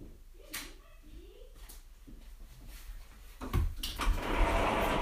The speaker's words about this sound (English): Well, close the door. That was my mom. What if you could hear that?